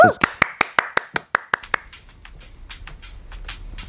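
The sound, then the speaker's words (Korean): A brisk, steady run of about a dozen sharp hand claps rings out, then gives way to softer, looser clapping that trails on in the background. An audience is applauding to welcome a song. “저희 노래 박수로 청해 들어볼게요.”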